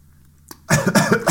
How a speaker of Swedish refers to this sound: Jag måste hosta lite själv.